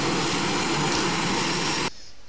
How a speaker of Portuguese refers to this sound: E tem avião passando.